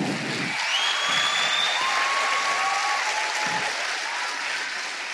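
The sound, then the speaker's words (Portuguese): Sustained audience applause for church staff coming up to the front, a dense, steady wash of many hands clapping at an even loudness, with a few thin high whistles sliding above the clatter. “Dá uma salva de palmas para esse povo. Tem que aplaudir até eles chegarem.”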